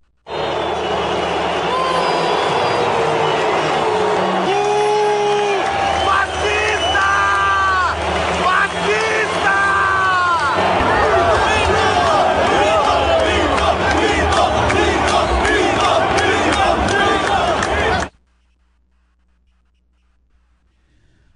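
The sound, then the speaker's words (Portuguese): A large stadium crowd at a final roars continuously for about eighteen seconds, booing and applauding the president, a dense mix of booing, shouting and applause with some whistles, then cuts off abruptly into silence. “Vamos ouvir as vaias e os aplausos?”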